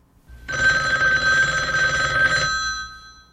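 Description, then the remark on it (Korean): A telephone bell rings loudly in one sustained burst of about two seconds, a bright metallic trill with steady high tones, with no voices. “누군데 자꾸 전화하는 거예요?”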